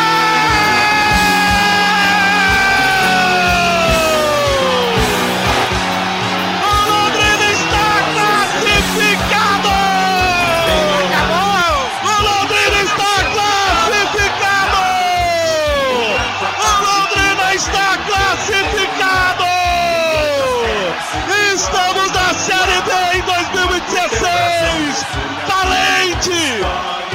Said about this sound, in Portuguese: Já passamos de 50 minutos. Mais do que suficiente o acréscimo no árbitro para terminar agora. Lateral vai ser cobrado, a torcida canta, é Tubarão, acabou!